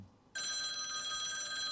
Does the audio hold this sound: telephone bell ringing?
yes